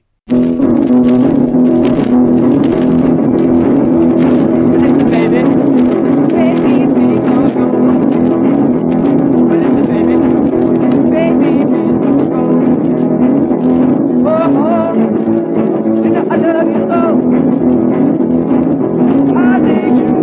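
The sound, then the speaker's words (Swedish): A loud, continuous band song from an old acetate disc, muddy and noisy, with a vocalist buried deep in a dense, droning mix throughout. “De tog bara med en låt ifrån de här två lackskivorna och det kan till och med vara så att det är en egen låt”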